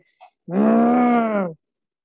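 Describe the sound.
A woman imitates a dog's guttural growl: one low, rumbling, sustained snarl lasting about a second, loud, preceded by a brief soft intake and followed by silence.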